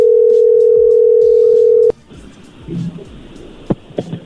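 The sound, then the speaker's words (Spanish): A loud, steady telephone dial tone hums at one low pitch for about two seconds as a phone call is placed, then cuts off abruptly with a click, leaving faint line hiss and a few scattered clicks. “A ver, ya entró ahí la llamada.”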